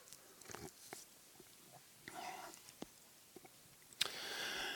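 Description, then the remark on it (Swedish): A speaker takes sips of water during a Bible reading: sips and swallows with scattered small wet clicks, a soft gulping rush partway through, and a longer slurp at the end, without talking. “Kan jag passa på att ta en klunk vatten medan ni Slå upp det.”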